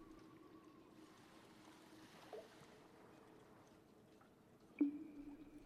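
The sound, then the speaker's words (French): Soft, steady water lapping against the hull of a boat drifting through a cave on a gentle wave current in fine weather, low and continuous, with a faint drip and a brief hollow knock near the end; no voices. “Le léger courant de vagues nous amène petit à petit vers l'autre bout de la traversée.”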